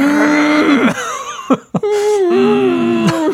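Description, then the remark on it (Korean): A voice imitates a low, strained, held-back scream, like someone screaming ventriloquist-style on an amusement park Viking ride: two sustained low-pitched groans with a brief gasp between them, fairly loud, no words spoken. “어, 이게 낮은 음으로 하시는 거 있잖아요. 약간 들어가는 소리.”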